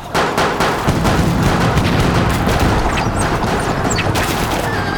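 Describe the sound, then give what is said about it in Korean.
Dense, continuous volleys of cannon and matchlock musket fire from defenders of a fortress shooting at attacking enemy troops, sharp cracks layered over deep rumbling booms, loud and sustained throughout like a raging battle with no voices. “총수들은 조총을 발사하고 포수들은 겁먹지 말고 대포를 쏘아라!”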